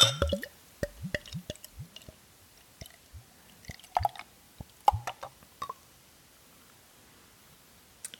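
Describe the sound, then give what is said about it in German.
A Berliner Weisse craft beer with light peach notes is poured into a glass: a string of irregular wet glugs, drips and small splashes, some sharper than others, trailing off into sparse faint drops. No one speaks. “So, ich schütte jetzt mal ein.”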